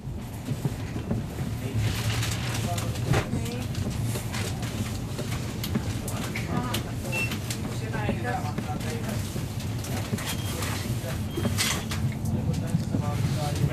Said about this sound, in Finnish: Mäkin nukahdin tuossa, kun tämä juna lähti Helsingistä.